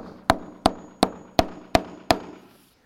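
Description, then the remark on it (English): A hammer drives a nail through a packet into a wooden cross with six sharp, evenly paced strikes, each a loud crack with a short ringing decay, and no voices. “So I'm going to nail this packet to the cross.”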